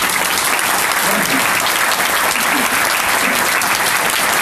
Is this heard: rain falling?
no